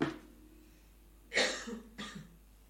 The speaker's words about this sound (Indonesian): Oke, ini agak batuk sedikit ya. Ini agak cuaca, masya Allah ya. Nah, ini nggak bisa kita kontrol nih ya.